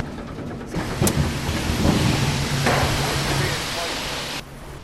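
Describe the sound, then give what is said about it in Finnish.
A loud, continuous industrial din of rumbling and clattering as debarked logs move along a belt conveyor at the UPM Kaukas sawmill, traditionally a pine sawmill. A few sharper knocks rise out of the roar, with a voice faintly underneath. “No tässä kohtaa, missä nyt seisomme, että kolina käy, niin tässä tukit on kuorittu ja tuosta ne lähtee sitten hihnaa pitkin eteenpäin menemään.”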